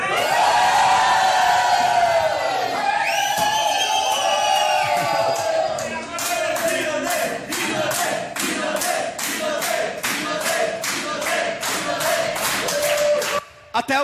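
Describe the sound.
A large audience at a training event roars with cheers and shouted voices, loud, then settles into steady rhythmic clapping and chanting under continued crowd noise until a sudden stop.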